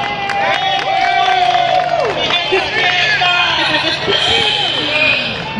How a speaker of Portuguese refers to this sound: Juliana Cardoso! vereadora da cidade de São Paulo, membro da Comissão de Saúde, Juliana Cardoso. Uma salva de palmas!